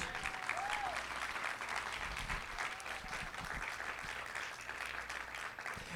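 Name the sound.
loud applause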